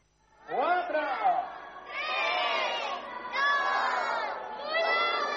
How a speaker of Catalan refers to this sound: La regidora d'Infància i Joventut, Isabel Sánchez, ha sigut l'encarregada de tallar la cinta que ha donat pas a l'entrada de molts nens i nenes que esperaven amb ganes l'arribada d'aquesta activitat.